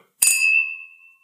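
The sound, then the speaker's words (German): Whisky glasses clink together once in a toast, a bright chime that rings on with a clear, fading tone for about a second. No one speaks. “oh, das klang sehr gut.”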